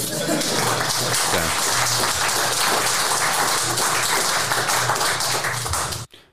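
A dense, steady burst of applause from a crowd, loud and continuous for about six seconds before cutting off abruptly, with a faint low hum underneath.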